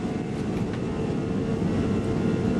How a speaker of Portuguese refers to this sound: Apertem os cintos, coloquem o celular no modo avião e deixem a poltrona na vertical, porque o avião já vai decolar.